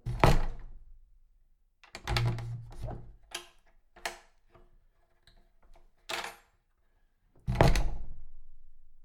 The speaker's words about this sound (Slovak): Kto si nahlas buchol dvermi na jedálni,